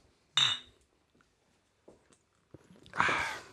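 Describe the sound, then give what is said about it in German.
Glasses clink together in a toast, a bright ringing tap, followed a few seconds later by a second, louder clink with some rattling in between. “Ja, Prost, Prost, Prost. Prost, Prost.”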